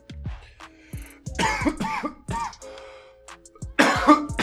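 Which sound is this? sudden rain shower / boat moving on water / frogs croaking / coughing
coughing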